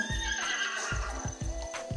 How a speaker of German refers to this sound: Pferd.